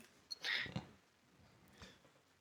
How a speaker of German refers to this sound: Falls, falls ihr hier irgendwelches Miauen hört, das ist mein Kater, der sich vernachlässigt fühlt gerade.